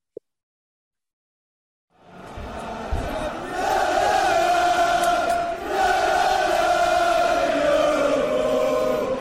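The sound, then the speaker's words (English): A crowd bursts into loud, sustained cheering and shouting goodbye after a brief silence, many voices roaring together at a steady high level with a slight dip midway before swelling again. “say your goodbyes, folks. Cheer goodbye.”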